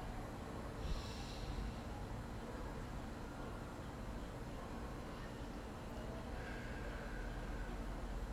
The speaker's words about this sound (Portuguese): Façam três respirações profundas. Se preferir, pode soltar pela boca. Inspira pelo nariz.